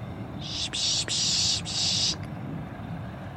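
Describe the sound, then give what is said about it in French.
A person makes a breathy hissing call, three or four quick bursts run together, imitating a bird to draw birds in. A quiet background murmur follows. “les rapaces, certains bruits d'oiseaux, pour les faire venir, pour dire ouais, je t'ai vu, viens voir.”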